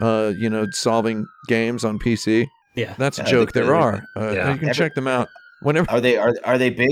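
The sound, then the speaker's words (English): A police car siren wails faintly, its long rising and falling tone drifting beneath a steady conversation between people talking. “The cops All are right. coming to get me right now.”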